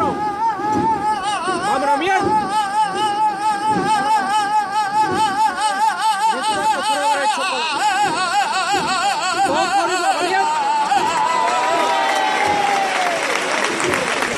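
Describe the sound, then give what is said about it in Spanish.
A solo voice sings a wavering, melismatic flamenco saeta in long ornamented phrases to the paso of Jesús de las Penas of the Hermandad de la Estrella. Dense, continuous applause and crowd noise for the lifting of the paso swell underneath and gradually overtake the song. “Se mezclan los aplausos a la levantada cuando todavía no ha acabado la saeta.”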